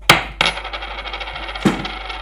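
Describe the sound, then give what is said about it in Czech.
A tossed coin strikes a hard surface with three bright metallic clinks, the last followed by a quick ringing rattle as it settles. Fairly loud, with no voices. “A spadne ten, co tam je, Helmut? E, Helmut Schmidt. Spadne Helmut Schmidt, říkám já, byl to dobrý rok.”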